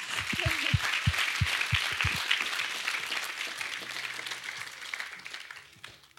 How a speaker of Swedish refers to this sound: Eller en applåd till den heliga ande.